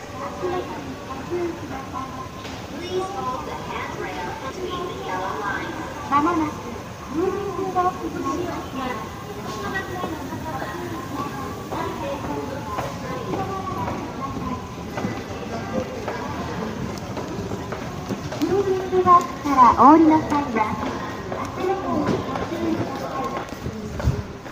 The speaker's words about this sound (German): Was allerdings gut zu hören ist, sind die Geräusche aus dem Bahnhof in Kyoto. Und genau die hören wir uns jetzt einmal an.